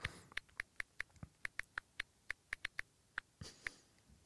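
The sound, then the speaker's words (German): A quick series of about fifteen light, crisp clicks, like keys being tapped on a phone while typing, coming at an uneven, fast rhythm with no voices. “Bist du einer von diesen Irren, wo, wo die Tastenklick-Sounds drin hat?”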